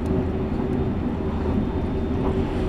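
Steady, loud low rumble of the limited express train Azusa No. 30 in motion on the Shinonoi Line and Chuo East Line from Matsumoto to Okaya, Japan, heard from inside the car, with a constant droning hum and a faint whine above it, no voices present.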